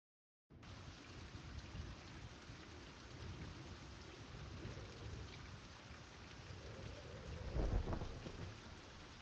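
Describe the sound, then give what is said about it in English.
Steady, dense rainfall hisses continuously while a deep rumble of thunder swells near the end, loud, with no voices present; these are rain and thunder sound effects in a video game. “Yeah, they've got good thunder effects now. They've done some good work on rain in the game.”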